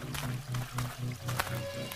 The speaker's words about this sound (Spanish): Son capaces y creen escuchar como el sonido del agua, el río, aguas turbias, que está a un costado del arca.